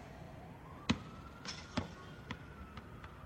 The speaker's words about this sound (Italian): Ho visualizzato il bambino, ho fatto visualizzare il bambino. Qui c'è il bambino che butta il pallone.